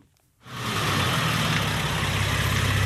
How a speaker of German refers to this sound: Motor abstellen. Erich Landsberger stellt seine silberne Limousine vor dem Haus des DDR-Grenzwächters ab.